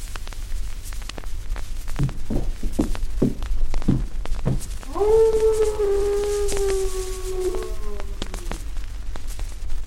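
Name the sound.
dog howling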